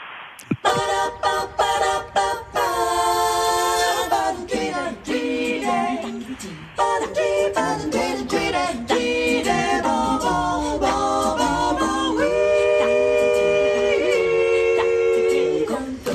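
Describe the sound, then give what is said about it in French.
The vocal quartet sings a cappella in close harmony, from its show Cinema Capella, sustained chords moving together in steady phrases, loud throughout, with no instruments or speech. “Ce que vous entendez là, c'est le, … qui proposera Cinema euh, Capella.”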